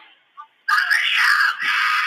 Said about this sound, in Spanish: una cámara captó el audio de esta mujer gritando. Y ahí pasó el carro donde la donde se la donde la secuestraron.